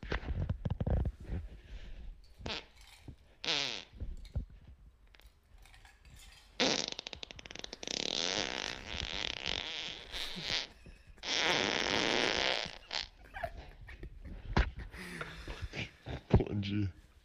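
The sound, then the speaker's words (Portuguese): A long, drawn-out fart rasps loudly in several sustained buzzy stretches with brief breaks between them, while people talk intermittently around it, during a farting competition. “Então isso mostra que Show do Peido tem muito a melhorar e mostra o nível do primeiro campeonato brasileiro ou talvez até internacional de farting”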